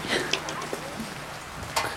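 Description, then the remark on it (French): Steady rain falls outdoors, a soft continuous patter with occasional sharper drops, while muffled voices murmur faintly in the background. “On va se mettre un petit peu sous le vent, l'abri de la pluie.”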